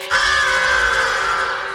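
A crow lets out one loud, harsh, drawn-out caw while flapping its long wings, sustained for nearly two seconds with a raspy, shrieking edge.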